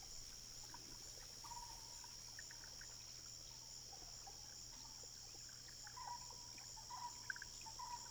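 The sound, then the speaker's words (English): Soft, steady water trickling at a low level in nearby irrigation canals among rice fields, with faint bubbling blips now and then, under a constant high drone of insects chirping in the background. No one speaks. “You can hear water trickling in the nearby irrigation canals.”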